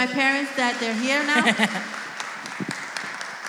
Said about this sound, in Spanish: Den un aplauso a los pastores.